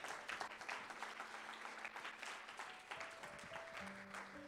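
audience applause

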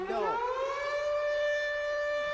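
siren sound effect

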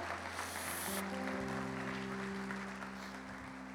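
audience applauding

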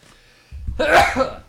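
sneeze

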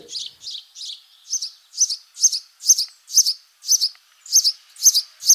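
house sparrow chirping

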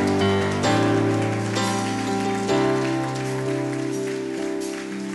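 audience applauding

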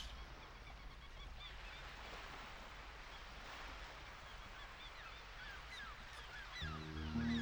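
ocean waves

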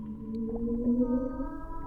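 whale song

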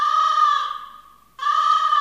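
crow cawing sound effect

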